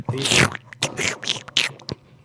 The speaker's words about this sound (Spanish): No, de hecho ya te vamos a prohibir que entres con chetos porque le muerdes muy fuerte al micrófono. Se oye nada más.